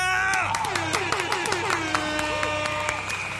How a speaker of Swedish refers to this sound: Vi kör en applåd och en liten tuta på det!